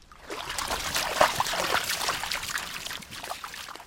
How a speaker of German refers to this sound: Der Fluss ist nicht mehr als einen Meter breit und gerade mal knietief. Er ist in den vergangenen Monaten immer weiter ausgetrocknet, weil es nicht geregnet hat.